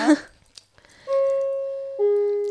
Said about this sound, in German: Das, das ist der Gong nochmal. Halt wir sind immer noch in der Das Schule.